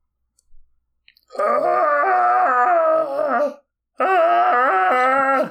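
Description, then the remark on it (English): A human voice imitates Godzilla's roar with two long, loud, wavering shrieks, the first about two seconds and the second cut off after a brief pause, with no talking. “That's what Godzilla's roar sounds like, right? I've been working on it for two months.”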